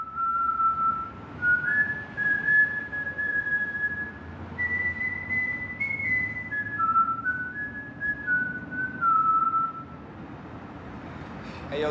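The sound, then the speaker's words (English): A man whistles the nursery-rhyme melody 'The Farmer in the Dell' in clear, steady, sing-song notes for about ten seconds, over a constant low background rumble. “He he whistles Farmer in the Dell when he's sort of off of course, on one yeah. of his missions.”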